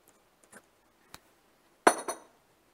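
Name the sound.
tea glass clinking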